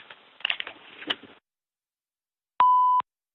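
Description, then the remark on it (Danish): A single steady electronic beep from a mobile phone's voicemail, loud and clear, lasting about half a second, signalling the start of recording, preceded by some faint rustling and clicks. “Kommer der ikke et bip?”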